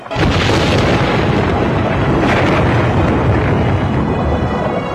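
Loud, sustained rumbling thunder rolls on without a break, a dense, deep roar with crackling texture that swells slightly midway and stays powerful throughout.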